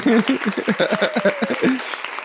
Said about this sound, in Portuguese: Mas enfim, palmas pro Russell. Palmas, palmas pro é Russell.